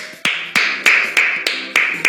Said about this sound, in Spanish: A los bomberos voluntarios hay que saludar en el día de hoy. Por favor, fuerte el aplauso.